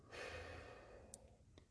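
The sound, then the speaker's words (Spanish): A patient breathes in and out audibly on instruction during a medical examination, one long airy breath drawn out over about a second before trailing off, followed by a couple of faint clicks with no talking. “Voy a ocultar sus latidos cardíacos y su, y su respiración. Sí. Inhale.”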